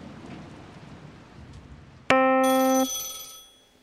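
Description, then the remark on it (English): Steady rain-like noise, then a telephone abruptly rings once, loud, a bright tonal burst that lingers briefly before fading away. “Always a ringing phone.”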